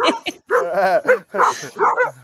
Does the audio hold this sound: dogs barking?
yes